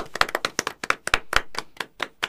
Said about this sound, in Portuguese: Então, obviamente, o vencedor é o Neymar. Palmas para Neymar Júnior.